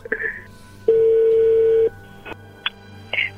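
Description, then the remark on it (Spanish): A phone number is being redialed after a call was cut off: a steady dial tone holds for about a second, then a few short, sharp keypad beeps follow at uneven intervals over a low background hum. “A ver, márcala de nuevo.”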